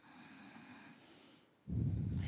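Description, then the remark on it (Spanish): A deep breath: a long, soft, airy inhale runs for over a second, then gives way to a louder, heavier exhale rushing out into the microphone. No one speaks. “Tomamos una profunda respiración”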